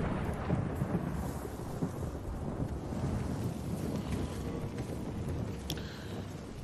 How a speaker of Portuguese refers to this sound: Se tem chuva, tem drama. Chuva na tela.